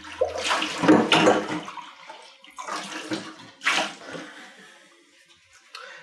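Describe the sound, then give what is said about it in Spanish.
Running tap water splashes over dishes in uneven, hissing surges, swelling and fading several times, with a few faint clinks mixed in and no one speaking. “Estoy grabando esto mientras lavo los platos”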